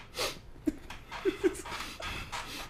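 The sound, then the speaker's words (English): A voice imitates the heavy panting of a gorilla that cannot keep itself calm and is shaking, a run of rapid, breathy huffs with a few sharper voiced grunts, fairly loud. “the gorilla he can't keep himself calm, so he kind of shaking and shit. He's like”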